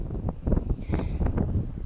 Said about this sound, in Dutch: Het waait trouwens heel hard nu, ik hoop dat je er niet te veel last van hebt.